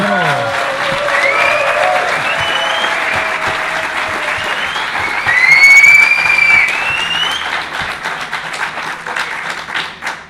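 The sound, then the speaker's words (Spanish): A live audience of several hundred people applauds steadily for about ten seconds, dense clapping with several sharp whistles rising over it, loudest near the middle, before the applause begins to thin out. “aquí oigo algún silbido”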